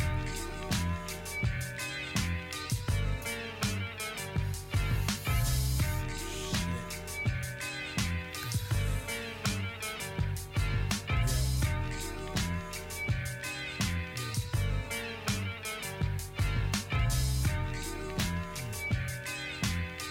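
A hip-hop song built on a music sample, released in 1992, plays loud and continuous, a steady drum beat and deep bass under a looping sampled melody, with no talking over it.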